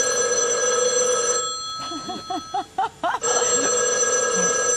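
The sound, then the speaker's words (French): A telephone bell rings in a quick run of short bursts in the middle, over a steady background hum, with no voices. “d'installer euh, entre Washington et Moscou une ligne directe qu'on baptise à l'époque, et ça devient un symbole de géopolitique, qu'on euh, qualifie de téléphone rouge.”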